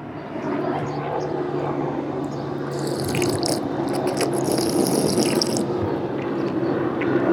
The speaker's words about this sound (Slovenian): Zdaj bom pa prvoščila si malo vode na pitniku v parku.